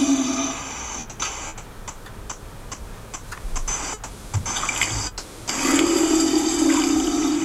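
A female animal in an almost submissive body position, communicating with an approaching male, vocalizes in a rapid, irregular series of sharp clicks over a steady watery hiss. The hiss swells louder at the end after the clicking stops.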